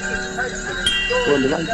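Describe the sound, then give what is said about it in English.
A doorbell, rung by a caller on a radio phone-in, rings with sustained, steady chiming tones and a sharp click partway through, slightly muffled as if over a phone line, with faint voices in the background. “let's have the doorbell.”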